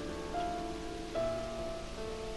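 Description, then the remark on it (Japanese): Heavy rain pours steadily onto asphalt in strong wind, a dense continuous hiss of drops splashing and bouncing off the pavement, with soft sustained musical tones shifting pitch faintly underneath. “雨が降っていた激しい雨アスファルトに跳ね返った雨粒が足元を濡らしていく風も強い”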